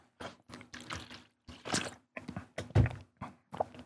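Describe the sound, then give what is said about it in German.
Water is poured into a glass in short bursts, followed by a few sips and a soft thunk of the glass being set down, with no talking. “Äh, ein Schlückchen Wasser nehmen da.”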